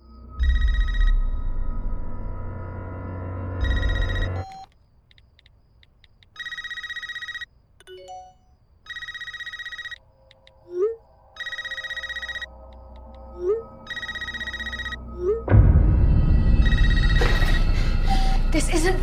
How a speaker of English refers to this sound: That was from the trailer for Scream 2022, aka Scream 5.